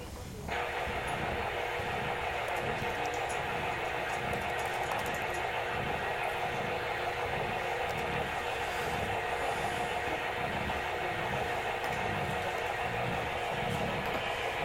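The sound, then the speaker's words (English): Loud, steady hiss of radio static fills the whole stretch without a break, with a faint rhythmic low throbbing pulsing underneath. No voices are heard. The radio receiver is tuned about 400 hertz away from WWV. “Only we get is static.”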